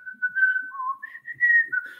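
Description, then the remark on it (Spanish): A person whistles a short, clear melody of several sustained notes that rise and fall, moderately loud, imitating the whistling of Clementina, a valve computer and the first computer in Latin America, named for the song it whistled. “Nosotros ahí tuvimos, por ejemplo, la primera computadora que hubo en América Latina, una computadora de válvulas, le llamamos Clementina por el sonido que hacía, silbaba la canción esa”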